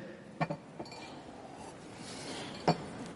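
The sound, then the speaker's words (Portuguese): Glass clinking as someone drinks water: a quick pair of bright clinks, a softer tap, then one more sharp clink after a pause, over a faint hiss with no talking. “Eu vou até tomar um copo d'água, porque aí realmente esse negócio ficou complicado aqui, né?”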